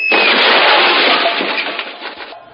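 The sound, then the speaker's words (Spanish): A car slams into a motorcycle in a loud, sustained crash, with harsh crunching and clattering debris for about two seconds before it cuts off abruptly. No one speaks. “parece que ha tenido algún acercado con la motocicleta de alguna gente de movilidad.”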